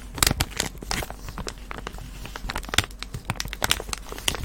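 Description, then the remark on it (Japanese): Crinkling and crumpling of a thin material, a dense stream of irregular crackly pops and rustles, moderately loud and continuous with no voices. “まあ、僕は結構このクリンクルサウンドが好きですね。”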